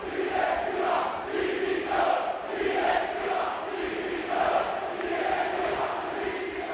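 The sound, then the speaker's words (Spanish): The crowd at Mendizorroza stadium cheers and chants in unison as Deportivo Alavés beat Espanyol, a loud, steady roar with rhythmic swells of massed voices rising and falling about every half second. “Las 11 y cuarto de este miércoles 11 de mayo, día en el que el Deportivo Alavés se aferra a la primera división tras ganar al español y en el que hemos escuchado esto en Mendizorroza.”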